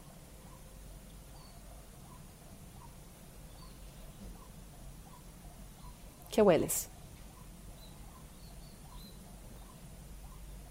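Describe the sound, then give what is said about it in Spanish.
Faint birds chirp steadily, with one louder burst of rapid calls partway through. A voice speaks briefly over a soft ambient hum. “escuchar los pájaros, de mi audio.”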